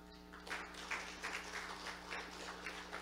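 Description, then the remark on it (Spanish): An audience applauds a man, called brother, who helped with a mirror demonstration: a steady, dense, even patter of many hands for about three seconds with no voices, over a constant low electrical hum. “Un aplauso al hermano.”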